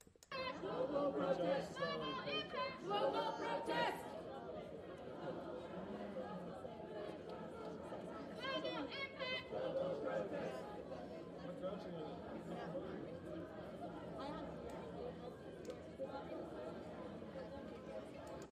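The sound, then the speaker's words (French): A large outdoor protest crowd murmurs steadily while a person shouts "global protest" and loud voices repeat the chant in bursts, twice rising above the general noise before fading back into the hubbub. “Mais, mais dès le point de début, il y a donc cette personne qui crie global protest et là, on entend, puisqu'il y a une foule”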